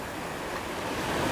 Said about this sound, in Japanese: まあこれあの僕の声を聞くよりねこの自然の波の音をねぜひとも聞いてほしいなっていう、えー、感じなんで、えー、ちょっと1分ぐらいね何も喋らないような、ええー、ちょっと放送事故じゃないですけど、まあ、あえて何も喋らない時間をねちょっと作りたいと思います。